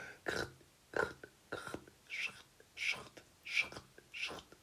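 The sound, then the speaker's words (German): A voice imitates boot footsteps crunching through snow: about seven breathy, crackling bursts in a steady walking rhythm, fairly quiet, with no talking. “Achso, du machst Schritte mit Schnee.”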